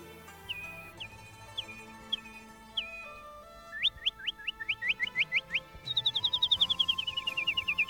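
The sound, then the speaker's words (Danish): A nightingale sings clear, separate whistled notes, then a quick run of rising chirps and a fast descending trill, loud over soft background music. “Den aften sang nattergalen for kejseren og hele hoffet igen og igen.”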